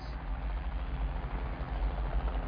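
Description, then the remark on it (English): Helicopter blades whirring in a steady, heavy low-pitched rumble with a slight fluctuating throb, loud and continuous for the whole stretch, with no voices. “Helicopter blades.”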